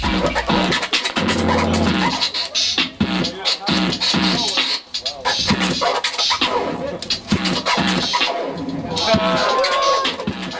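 Loud, busy turntable scratching fills the whole stretch: rapid back-and-forth record scrubs with sweeping pitch glides, choppy rhythmic cuts over a beat and low bass pulses, no voices.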